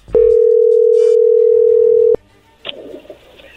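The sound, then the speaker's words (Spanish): A steady, loud telephone dial tone holds one flat pitch for about two seconds as a phone call is placed, then cuts off abruptly, followed by faint line noise and a brief burst of rustling. “Pues vamos a llamarle a Doris”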